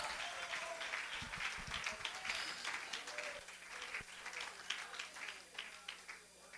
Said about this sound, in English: Let's clap our hands unto the Lord and shout unto him with the voice of triumph. Hallelujah.